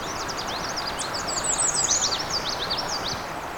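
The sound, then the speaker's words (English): A bright, high-pitched indigo bunting sings a quick series of sweeping, slurred notes, some in pairs, over a soft outdoor hiss with no talking. “Oh, indigo bunting.”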